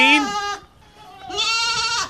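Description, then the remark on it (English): Two loud goat bleats with a short pause between them, each a strained, quavering cry that rises and wavers before cutting off. No one speaks. “Sound the fraudulent goats.”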